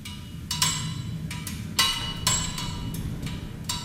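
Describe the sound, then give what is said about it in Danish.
Sharp metallic ticks and clicks land at irregular intervals from a cooling motorcycle, each trailing off into an added reverberant wash over a low, steady rumble. “lægge klang på den knirke lyd, som kommer fra en motorcykel, der køler af, og som man ellers kun høre, når man er helt tæt på, og der ikke er nogen klang omkring”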